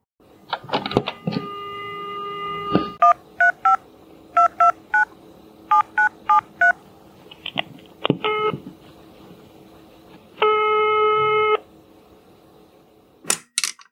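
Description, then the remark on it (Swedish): A steady phone tone is followed by a quick series of keypad dialing beeps in short bursts, then a single long ringing tone, with handset clicks at the start and end, as a call is placed to an author's agent. “Ska vi ta och ringa hennes agent?”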